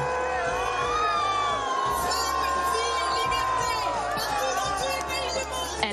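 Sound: crowd booing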